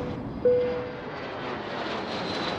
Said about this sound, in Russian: Уважаемые пассажиры, пристегните ремни и включите воображение. Космолет пульверизатора науки уже включил двигатели и готов к взлету.